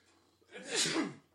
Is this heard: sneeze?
yes